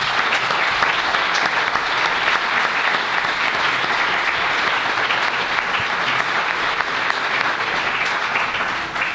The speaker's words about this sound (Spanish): si os parece, les vamos a dar un aplauso, un aplauso porque se lo merecen.